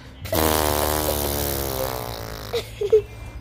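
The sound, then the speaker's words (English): A long, loud fart sound effect as Pitu the clown lands on his bottom after slipping on a banana peel, a buzzy, raspy blast lasting about two seconds that slowly sags in pitch, followed by a few short sputtering puffs at the end. “And when he landed on his bumps, there was a big sound of him releasing all the air inside his pittu stomach.”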